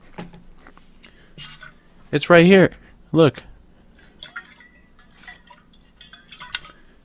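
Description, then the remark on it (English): Handling of a water bottle: scattered light knocks, clicks and plastic rustles over several seconds, with a voice briefly speaking partway through. “I accidentally used up all my karma points a few weeks ago when I accidentally stole a water bottle from Walmart. Oh wait. I think I have it right here.”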